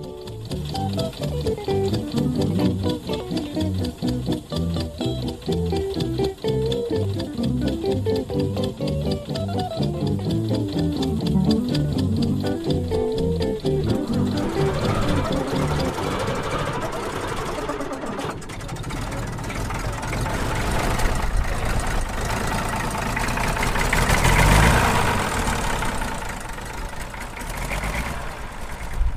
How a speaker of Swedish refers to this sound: Du sitter Jan åker på din eh, favorittraktor. Vad är det för traktor?